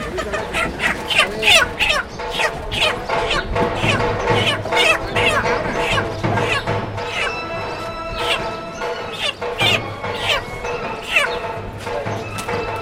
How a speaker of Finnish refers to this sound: Se teurastaa kanoja.